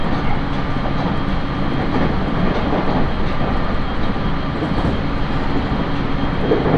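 A JR East train rolls steadily along the rails on the Tohoku Main Line between Sendai and Kogota, Japan: a continuous loud rumble with a dense low-end roar and a faint rhythmic clatter of wheels, no voices present.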